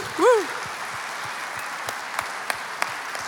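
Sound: audience applause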